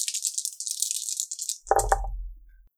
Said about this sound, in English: two 17s on the dice. That'll hit.